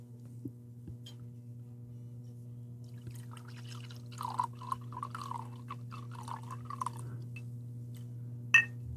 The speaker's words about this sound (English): That's the sound of success. Just gonna empty it. Oh God, you poured the whole bottle in there. I mean, what was left?